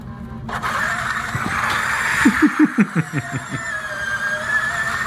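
A Formula E electric race car whines at a high, steady pitch, a thin electric hum with a rapid burst of about eight rhythmic pulses partway through, then the whine continues.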